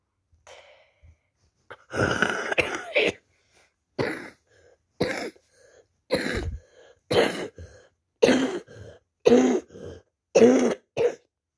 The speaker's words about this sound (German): Oh, Junge, was war das gerade? Einfach 20 Mal gefühlt hintereinander ge ge gerufen, gehustet. Husti, husti.